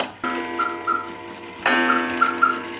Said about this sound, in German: Hier gibt es sogar einen Kuckucksraum. Wie viele Kuckucksuhren hängen denn hier? 54 Stück. 54 Kuckucksuhren.